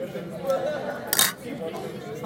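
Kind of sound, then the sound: household object, glasses clinking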